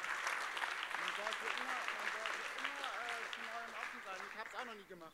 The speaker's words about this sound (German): Ihr seid mutig, Applaus für euch.